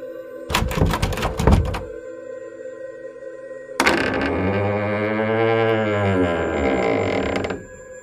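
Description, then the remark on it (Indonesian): A door latch clunks and rattles, then a pause, then a long, drawn-out creak as a bedroom door slowly swings open by itself, its groaning pitch bending and wavering for several seconds. No one speaks. “Iya, pintu kamarku terbuka dengan sendirinya.”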